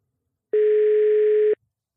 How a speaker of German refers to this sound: Guck mal, ob er rangeht. Klingelt schon mal. Das ist schon mal gut.